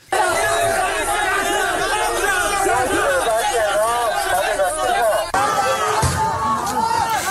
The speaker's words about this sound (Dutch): raakten slaags met de beveiligers blijkt uit opnames die volgens Bloomberg op Chinese social media zijn gezet